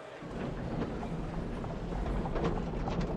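Horse hooves clip-clop over a steady rumbling street noise as a horse-drawn tram rolls along, the hoofbeats faint and irregular amid the continuous clatter, with no voices.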